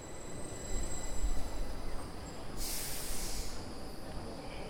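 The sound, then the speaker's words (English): A steady rumble of a high-speed train to Stockholm, Sweden, rolling along the rails, with a brief burst of airy hiss partway through. There are no voices. “Now I was boarding a high speed train.”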